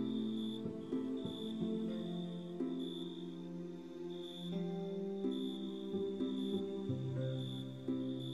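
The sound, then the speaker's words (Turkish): Crickets chirp in steady, evenly spaced pulses over a soft, sustained musical drone of held tones, a calm continuous nighttime texture with no talking. “Cırcır böceklerini susturabilir misin?”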